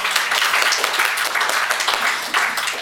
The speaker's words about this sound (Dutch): 497 pagina's over één onderwerp: fermenteren en inmaken. Dat, eh, ja, dat, daar kunnen we ook wel eens een keer voor klappen, voor zo'n boek.